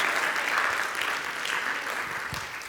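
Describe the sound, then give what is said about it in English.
Steady crowd applause fills the whole stretch, a dense wash of many hands clapping at an even, sustained level that fades slightly toward the end. “Come on somebody, would you give him a great round of of applause.”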